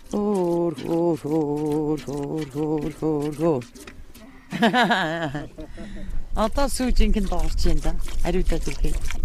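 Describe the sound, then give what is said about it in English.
Milk from a mother yak streams into a pail in quick, rhythmic spurts during the second half, fairly loud, while a woman sings a slow, lilting melody over it to relax the yak so she lets her milk down. “The song simply relaxes the yak so she'll let her milk down.”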